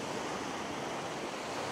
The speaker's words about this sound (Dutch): Luister ook gewoon eens rustig. Luister eens naar die oceaan die gewoon altijd maar doorgaat.